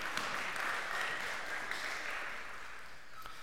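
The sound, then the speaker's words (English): Steady applause from a crowd thanking people for helping as they return to their seats, a dense crackle of many hands clapping at once that holds fairly even throughout, easing slightly toward the end, with no one speaking. “As they make their way back to their seats, let's give them a round of applause and just thank them for helping us out.”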